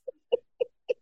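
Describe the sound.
A voice imitates a tape rewinding with four short, clipped vocal bursts in quick, evenly spaced succession, sounding somewhat chirpy, with no other talk.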